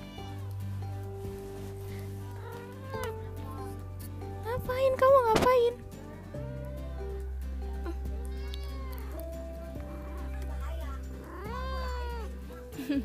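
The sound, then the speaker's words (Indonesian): A cat meows loudly several times in a wavering, insistent way, with one sharp yowl standing out, while a person talks to it over a steady low background hum. “eh ada Meng apa sih berisik ya aku lagi cerita kamu diem dulu”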